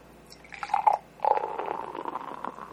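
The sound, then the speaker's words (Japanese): A gold-award-winning white weizen beer pours into a glass with a gurgling, fizzy splash. After a brief pause, a longer steady pour keeps bubbling and foaming to the end. No one speaks. “ちょっと継ぎましょうね”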